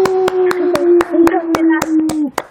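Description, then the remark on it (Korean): Rapid, steady seal-style claps from a team ring out about ten times in quick succession after a singing performance, over a sustained voice-like tone, an enthusiastic burst of applause. “우리 아, 팀이 지금 전부 물개 박수 쳤어요.”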